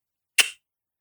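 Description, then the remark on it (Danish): A single sharp, crisp tongue click, given as the secondary signal to a horse to move forward, heard on its own with silence before and after and no talking. “Det sekundære signal er som for jorden et tungeslag.”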